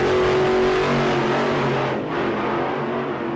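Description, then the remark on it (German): A car engine revs hard and accelerates, a loud, sustained roar with rising pitch and a brief dip near the end, no voices present. “Genau, bei diesem Format geht es, wie man unschwer hören kann, darum, die PS auf die Straße zu kriegen.”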